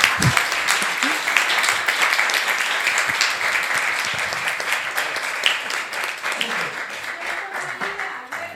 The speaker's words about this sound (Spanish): Pues si no hay ninguna pregunta ni reflexión más, mm, pues vamos a pasar a un aplauso y a...